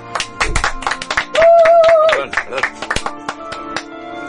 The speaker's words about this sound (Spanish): Sí, señor, un aplauso.